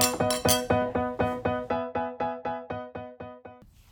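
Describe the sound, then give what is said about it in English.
Glasses clink together in a toast in a quick, steady series of about a dozen bright, ringing taps, each chime fading into the next, with no voices. “Cheers. Cheers.”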